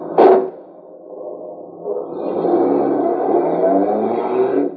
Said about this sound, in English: Get this car moving.